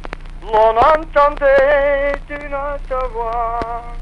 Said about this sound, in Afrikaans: Daar is niks soos die klank van langspeelplate nie. Ek luister nog baie graag langspeelplate, die uit my jong dae, my ouersin en die nuwe steesdae. Langspeelplate is tops en is tydloos en dis hoe ek my musiek luister. Dit bring die nostalgie terug.